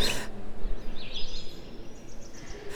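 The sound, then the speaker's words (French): Faint birdsong chirps and twitters in a quick, wavering run over a steady low background hum, with no one talking, heard in an art installation with a nest suspended more than 7 metres high on tall tree trunks. “on entend d'ailleurs les, les d'oiseaux.”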